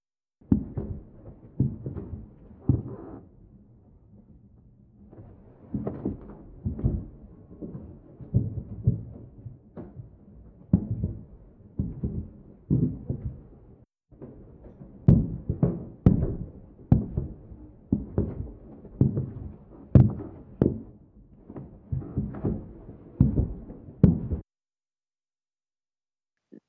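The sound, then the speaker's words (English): A long run of recorded footsteps, picked up by a microphone, dull thuds at a steady walking pace. A short pause falls partway through, then the steps resume slightly louder and sharper before stopping. “I have the recording of those footsteps.”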